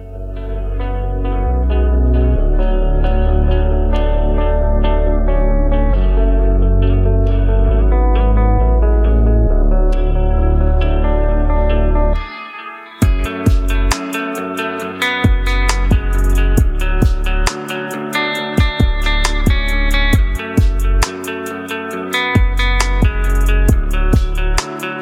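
An instrumental beat plays loudly with no voices, opening on sustained, effect-laden melodic chords over deep bass; about halfway through, crisp drum hits drop in and drive a steady rhythm.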